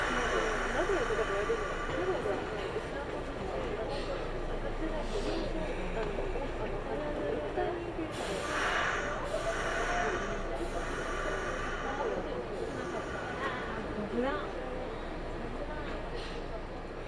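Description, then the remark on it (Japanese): A Kintetsu local train bound for Tsu-Shinmachi, the 8:05 departure stopping at every station, idles at a station platform before departure with a steady engine rumble, a few hissing bursts of air partway through, and indistinct voices murmuring in the background. “近鉄をご利用いただきありがとうございますこの電車は津新町行き普通電車です発車までしばらくお待ちください Thank you for taking 近鉄 Railway.”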